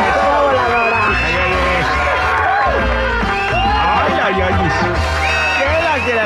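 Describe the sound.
An audience cheers and applauds loudly and continuously for about six seconds, many voices whooping and shouting over one another in a dense, excited roar.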